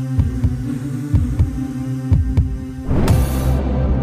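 A heartbeat sound effect: three slow, paired lub-dub thumps over a low droning hum, then a swelling whoosh rises and the hum thickens into a sustained tone.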